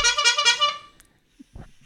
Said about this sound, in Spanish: tiene que explicarnos qué son las cuatro bocinazos o cinco que ha dado, porque esto es, un código nuevo.